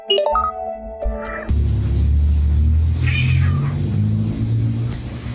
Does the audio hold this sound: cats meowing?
yes